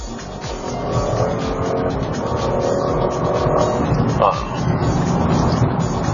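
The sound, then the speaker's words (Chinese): A car engine in sport mode pulls hard under heavy acceleration with a downshift, a steady, gritty roar that swells slightly over several seconds. A voice makes a brief sound over the drone. “在运动模式下，急加速降档，它不是那么激进，是因为软件的调教啊，更多的愿意通过这个发动机的扭矩去带动。”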